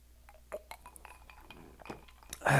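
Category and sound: food or drink, sipping whiskey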